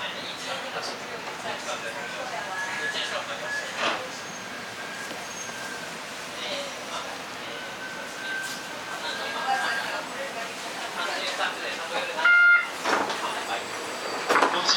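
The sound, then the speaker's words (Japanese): A Kitakyushu Monorail 1000 series train, running from Kikugaoka, pulls into the terminus Kokura station with a steady rumbling hum and a thin motor whine, brief mechanical clunks and a short squeal near the end, with muffled voices in the background. “北九州モノレール 1000系 企救丘から小倉まで”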